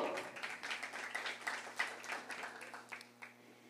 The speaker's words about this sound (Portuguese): Dê mais um forte aplauso ao Senhor.